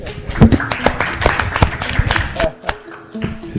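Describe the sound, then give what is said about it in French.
An audience applauds the participants after a debate with a burst of dense, overlapping claps that thins out toward the end, while some voices murmur underneath. “On va vous les applaudir, s'il vous plaît.”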